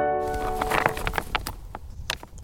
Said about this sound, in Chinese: 哦，这是捡石头发出来的声音。